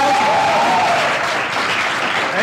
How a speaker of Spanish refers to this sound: aplauso.